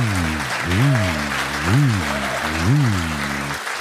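Steady audience clapping fills the whole stretch, with three evenly spaced rising-and-falling whoops or tones riding over the applause.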